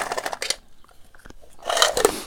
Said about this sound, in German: Ähm, Wenn es recht ist, ich nehme mir mal eben einen, einen Bonbon aus der Dose.